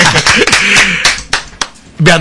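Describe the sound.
A short burst of applause, a handful of uneven, sharp claps spread over about two seconds, with voices and laughter rising over the opening and closing moments.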